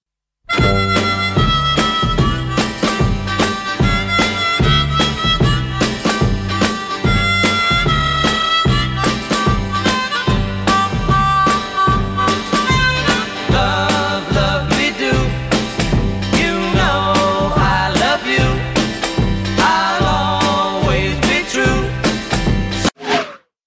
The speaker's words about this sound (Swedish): Men vi kan ju svänga in eh, eh kanske en trudelutt av den låten här som man kanske kan höra litet. Jag, jag, Ja, det, det kan vi säkert göra. Eh, det låter så här.